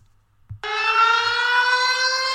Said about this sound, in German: Oh. Moment, Handy klingelt.